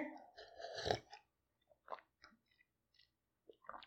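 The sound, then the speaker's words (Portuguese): A noisy slurping sip, then a string of soft, separate gulps and wet mouth sounds spaced out over a few seconds, with no one talking. “Eu vou tomar o meu aqui.”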